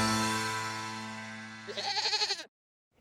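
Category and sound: animal, goat bleating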